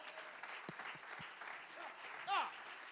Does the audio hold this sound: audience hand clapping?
yes